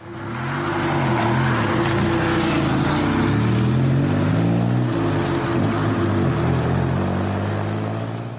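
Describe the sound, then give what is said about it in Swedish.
The engine of a silver-grey Aston Martin DBS roars steadily, its deep rumble rising and falling in pitch as the car is driven, accelerating and shifting through gears, with no voices. “där det faktiskt finns ett videoklipp när jag kör den här silvergråa DBSen.”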